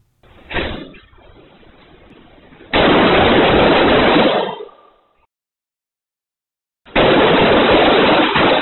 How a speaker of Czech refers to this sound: potom vlastně rámo stopí do jedné ze tříd a vypalí v ní ve dvou minutách přes 100 ran